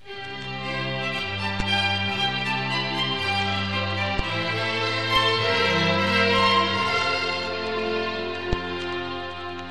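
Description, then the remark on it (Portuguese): A string quartet plays a lively, bouncing melody over a steady bass line, the theme for the character Pedro in a musical fable, bowed notes clear at moderate volume, with no voices. “Por exemplo, toda vez que Pedro entrar em cena, vocês ouvirão um quarteto de cordas tocando qualquer coisa assim.”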